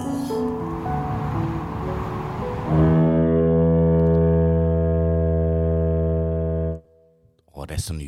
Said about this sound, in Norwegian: Tåkeluren går. Den er god, altså.